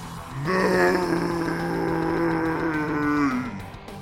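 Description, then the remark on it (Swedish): A person's voice imitates a monster's roar: one long, low, groaning bellow that holds steady for about three seconds before sliding down and fading, close and fairly loud. “Du rusar mot brunnen och du hör där bortifrån hur han eh, vrålar.”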